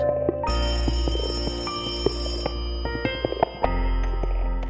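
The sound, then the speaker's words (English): An old-style telephone bell rings loudly, a sustained metallic jangle with sharp clicks scattered through it, and no voices. “The phone rang.”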